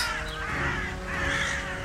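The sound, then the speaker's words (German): Ravens cawing in two harsh, raspy bursts that follow one another closely, loud, with a faint hum running underneath and no voices. “dann kannst du gerne wieder deine Raben rufen.”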